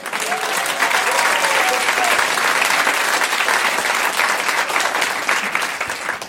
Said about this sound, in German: Euer Applaus für diese Frage. Das ist deutlich mehr als respektvoll. Ähm, dann euer Applaus für die Frage von Sascha Grammel.